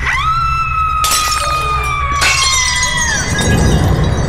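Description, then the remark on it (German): Glass shatters loudly in a castle, with two sharp crashes about a second apart, its splinters striking a person, followed by high ringing tones and tinkling shards that fade away. No one speaks. “Hier ist jemand von den Splittern getroffen worden.”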